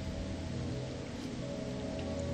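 Steady rain from a rainstorm falls continuously, a dense, even hiss with soft patters of drops, moderately quiet and unbroken, with no voices.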